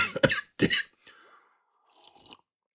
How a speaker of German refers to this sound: Tee, der Husten geht schon wieder los.